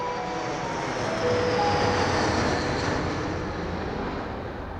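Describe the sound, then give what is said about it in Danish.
A steady, loud jet aircraft roar fills the scene, with a whining engine tone that swells slightly and then eases, like a plane coming in to land at Kastrup airport. “Men det ændrer sig lige så snart hendes fly lander, og hun træder ud i ankomsthallen i Kastrup og møder ham i virkeligheden.”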